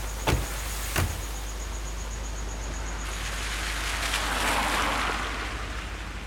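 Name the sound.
car driving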